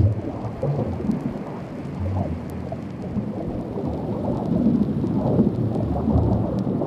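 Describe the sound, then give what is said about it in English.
Deep, rumbling iceberg booms and low pulses, picked up by a recorder sitting about 20 meters down at an ice shelf, roll together in a steady, dense hum that ebbs and flows, swelling slightly louder toward the end, with no voices present. “So uh, about 20 meters down, it just sat there, and it started picking up all these beautiful booms, these low end pulses um, almost like a, that low frequency of a whale song that we're all um, quite familiar with, I suppose.”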